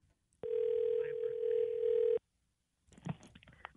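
A telephone line gives one steady, mid-pitched ringing tone for about two seconds as radio hosts phone a listener from their station, then falls silent before muffled clattering and handling noise come through the line.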